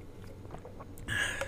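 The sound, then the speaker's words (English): A quiet, close-up sip of water: a few soft mouth clicks and lip sounds, then a short slurping gulp near the end, with no talking. “I'm gonna take a sip of water, and I'll explain why.”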